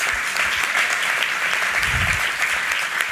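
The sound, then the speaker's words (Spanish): Steady audience applause for two people's testimony, a dense wash of many hands clapping at an even loudness throughout, with no voices standing out above it. “Creo que sin duda, no sé cuántos pueden darles un aplauso de cómo su testimonio edifica sus vidas.”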